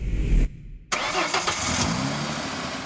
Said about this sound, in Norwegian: I mange år så har det her vært en velkjent lyd av bil.